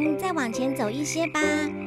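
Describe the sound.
Frogs in a marsh croak in a steady, buzzing chorus that runs almost unbroken for about two seconds, with a brief dip near the end, while a person speaks a short line over it.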